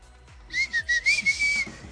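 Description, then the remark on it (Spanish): A person whistles a short, wavering tone, with breathy pulses stuttering at the start before one sustained, slightly rising and falling note, fairly loud, with no talking. “Ay, ¿por qué haces ese chiflido”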